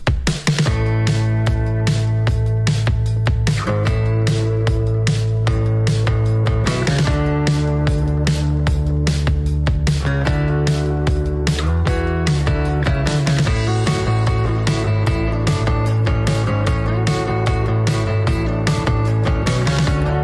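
A full pop song by a Scottish singer plays loud and steady for the whole stretch, with a driving regular beat, layered instruments and a warm, sustained harmonic bed underneath.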